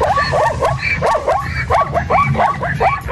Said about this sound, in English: Uh, a zebra. Uh, does anyone know what a zebra sounds like? There, there, there you go. That's he sounds like a dog. no, I can assure you it's a zebra. Definitely a zebra.